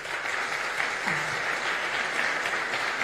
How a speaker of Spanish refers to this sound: quería primero hacer un pequeño inciso, agradecer a la organización de los premios Aquí TV, que nos hayan tratado con este cariño, con este respeto y sobre todo con esta profesionalidad que este evento requiere. Yo quiero un aplauso para todos ellos.